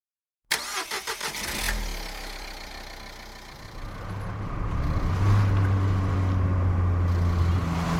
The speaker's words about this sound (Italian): Mette in moto la macchina e riparte.